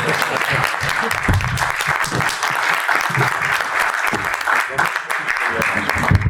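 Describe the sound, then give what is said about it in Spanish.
Steady, dense applause from an audience for the gentlemen who presented, a continuous loud patter of many hands clapping without pause, with no voices standing out. “un aplauso a todos los señores.”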